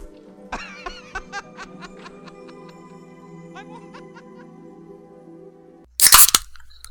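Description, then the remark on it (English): A drink can is cracked open near the end with a sharp pop and a brief hiss of fizz, following several seconds of soft chuckling over a low steady hum. “I heard the can.”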